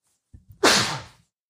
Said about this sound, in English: Vampire sneeze.